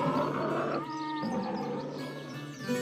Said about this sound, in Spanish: Toy respondió con rugidos porque ya no se le entendía